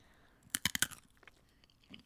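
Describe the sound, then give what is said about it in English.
Crisp crunching from chewing cracker nuts, nuts coated in a very crunchy fried cracker shell: a quick burst of four loud bites, then softer scattered crunches trailing off. “I'm eating That's cracker fair. nuts.”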